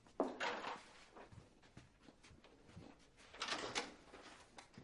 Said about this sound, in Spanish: Abre la puerta.